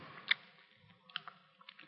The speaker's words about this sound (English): Chew a little louder, …. We can dance to it.